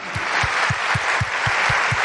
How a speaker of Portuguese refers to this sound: Mas hoje, amados, aplaudam Jesus, amém